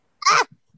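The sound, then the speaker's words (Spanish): One sharp, explosive sneeze bursts out, lasting a fraction of a second, followed by a couple of faint breathy sounds. “Salud.”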